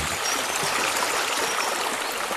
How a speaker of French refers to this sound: Ainsi, sans se presser, ils arrivèrent au bord d'une grosse rivière assez profonde.